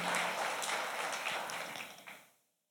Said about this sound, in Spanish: Si se ponen de pie, por favor, las personas que están por primera vez con nosotros, queremos bendecirte, iglesia. Ayúdeme a darle un aplauso de bienvenida.